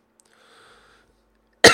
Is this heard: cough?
yes